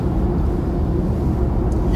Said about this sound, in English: It's like right now, I'm driving. I just made it to San Francisco